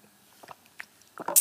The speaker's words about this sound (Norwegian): Men først skal jeg drikke vann.